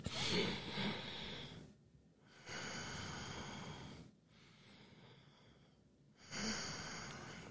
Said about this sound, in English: That may sound crazy, some guy breathing into the mic, but what I'm really trying to demonstrate for you is the importance of taking the time to breathe.